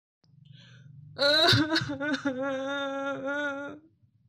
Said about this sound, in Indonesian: Kali ini adalah suara menangis. Suara tangisan dari mana asal suara itu? Aku harus membantunya agar ia tidak menangis lagi.